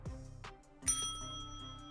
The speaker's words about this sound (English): All right, I'm going to do a combo here buzzer and bell.